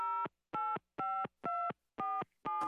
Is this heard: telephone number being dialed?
yes